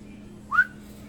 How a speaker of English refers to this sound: whistles at the worker, cashier.